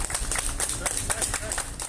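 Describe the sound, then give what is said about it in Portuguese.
Friends from the Municipal Guard applaud at the burial of a 51-year-old municipal guard who died of Covid in Rio, with sharp, uneven claps that overlap into a steady patter throughout, over a low murmur of voices and background rumble. “Ele estava há 25 anos na Guarda Municipal e foi enterrado sob aplausos dos amigos da corporação.”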